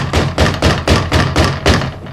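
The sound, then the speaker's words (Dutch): Heavy, steady pounding on a firmly bolted door: about seven loud, booming thuds in quick succession, with no voices between the blows. “Eh, zo te horen lijkt het gewoon een mens te zijn dat voor de deur.”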